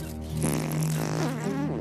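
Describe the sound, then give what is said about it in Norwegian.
A long, drawn-out fart from a film clip, with a buzzing, tonal quality and a wavering pitch, loud, lasting nearly two seconds with no talking. “Den gir deg humor med promp, men det er morsommere å prompe hjemme.”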